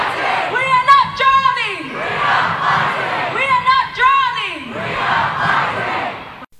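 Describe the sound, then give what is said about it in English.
A large crowd at the School Strike for Climate rally in Sydney roars in unison, two loud rising-and-falling group shouts a few seconds apart, with a steady wash of crowd noise between them. “We're hearing from people at the School Strike for Climate in Sydney.”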